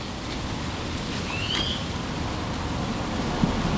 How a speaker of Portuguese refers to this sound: acho que eu vou fazer um drops do ASMR, porque eu tô aqui no meio do mato. Tá caindo uma chuva agora.